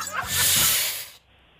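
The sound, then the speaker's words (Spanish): A snake's hiss, loud, swells quickly into a steady breathy rush that lasts about a second before cutting off sharply, leaving only faint background noise. “¡Sas! Culebra al piso”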